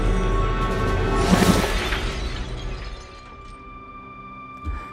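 Glass shards from chandeliers and a mirror shatter loudly in a bright, crashing burst around the middle of a bar brawl, followed by a tinkling, ringing decay of falling shards and a faint knock near the end.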